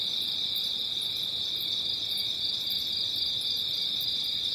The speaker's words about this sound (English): we listen to the very first bird of the dawn starts singing and the very last cricket of the night stops singing. And I think that's a really special opportunity to listen to that inflection point where day meets night.